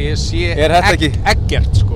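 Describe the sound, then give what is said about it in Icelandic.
A steady low rumble of road noise inside a car rolling downhill on Vaðlaheiði in Iceland in thick fog, running continuously beneath a person talking. “ef að Þorbergur Aðarsteinsson var í bílnum”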